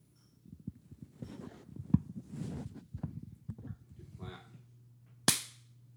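A single sharp hand clap rings out near the end, loud and crisp with a quick decay, after a stretch of soft shuffling, thumps and low background hum.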